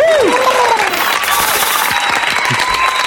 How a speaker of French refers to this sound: Ce soir émission spéciale avec un invité exceptionnel. Je vous demande d'applaudir, mesdames, messieurs, ah chers bah, auditeurs